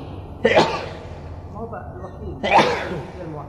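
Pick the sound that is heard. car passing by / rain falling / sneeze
sneeze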